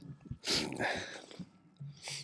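A sudden sneeze bursts out with a sharp, breathy hiss, followed by softer breathing and a brief second breathy puff near the end.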